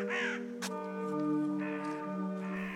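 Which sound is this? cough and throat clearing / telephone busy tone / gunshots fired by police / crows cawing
crows cawing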